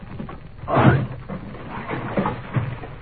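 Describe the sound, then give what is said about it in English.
A heavy thump and crash as a locked door is forced open, followed by a couple of softer knocks and rattles as it gives way. “The door's locked. Oh, we must break it open then.”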